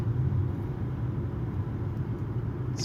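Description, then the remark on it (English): A steady, muffled low rumble of congested three-lane highway traffic as heard from inside a moving car, constant and droning throughout with no voices and no distinct passing vehicles. “It's just like traffic. It's just like what the f- three lanes of highway traffic.”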